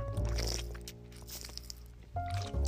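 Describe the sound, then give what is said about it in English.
Someone drinks water, with wet swallowing and gulping sounds, soft slurps and mouth noises over a low background hum, ending in a slightly louder gulp. “I'm drinking water, you sickos.”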